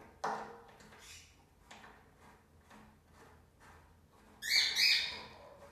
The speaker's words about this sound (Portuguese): meu passarinho tá gritando, tá gritando, ele né? tá cantando agora. Mas já já ele começa a gritar.